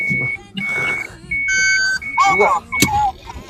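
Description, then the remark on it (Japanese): A car beeps outside, a series of steady, fairly loud electronic tones repeating at an uneven pace. People talk over and between the beeps. “音すげえでかいななんか車の音がピーピー言ってますけ”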